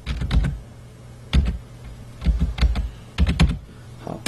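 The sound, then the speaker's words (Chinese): Computer keyboard typing in short bursts of quick, clicky keystrokes separated by brief pauses, entering the ID of a home camera to hijack its unencrypted video, with a low steady hum underneath and no one speaking. “好，我们现在输入我们摄像头的 ID 值。”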